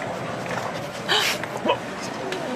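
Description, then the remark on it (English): A dog named Popcorn lets out a couple of short, sharp barks mixed with high whimpering yelps, over a busy background of low murmuring and room noise. “this dog is sexually harassing me!”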